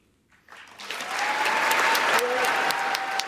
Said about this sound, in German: Ja, das wieder dieser Applaus, den du eingesprochen, äh, den du angesprochen hast.